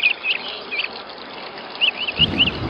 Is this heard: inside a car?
no